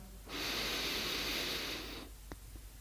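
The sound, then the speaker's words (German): A long, steady, airy inhale through the nose during a guided body-awareness breathing exercise, lasting nearly two seconds before fading, followed by a brief faint click in otherwise quiet surroundings. “Und wir atmen ein.”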